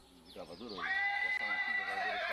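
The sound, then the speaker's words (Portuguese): Agitated breeding stallions on a farm neigh loudly and excitedly, a long shrill whinny rising and holding steady, with other horse calls overlapping while a voice talks underneath. “De 20 éguas usadas na reprodução. Os garanhões se agitam.”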